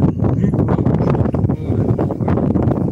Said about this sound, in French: Il y a du vent par contre aujourd'hui là. Hier il faisait une chaleur de malade. Aujourd'hui il fait chaud mais il y a du vent heureusement encore. Ça fait un peu de fraîcheur des fois là.